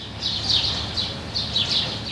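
Birds chirp in repeated short bursts of high, bright twittering outdoors in the garden of a seamen's home in Alexandria, Egypt, over a low steady background rumble; no one speaks.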